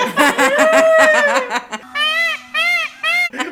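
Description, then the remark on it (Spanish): A man imitates a peacock with loud, nasal, wailing cries, three rising-falling calls in a row after a burst of laughter-like vocalizing. “Este, pero no, a, la a ver, hágale con pavo real.”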